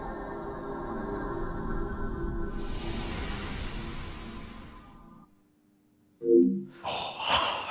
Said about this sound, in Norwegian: altså introlyden til PlayStation 2 som skrur seg ja.